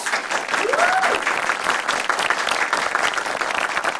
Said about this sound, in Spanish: Eh, muchas gracias porque estos aplausos es por la emoción que tenemos de iniciar nuestra primera temporada, nuestro primer episodio de Innovate con Medical. Otra vez unos aplausos.